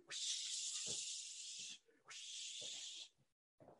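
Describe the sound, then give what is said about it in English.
A voice makes loud, prolonged shushing hisses: two long 'shh' bursts with a short pause between, then the start of a third that cuts off, as a bottle-service server hushes everyone while VIP bottles are served. “That's the sound of the the bottle lady telling everybody to shh because it's time for a VIP guy.”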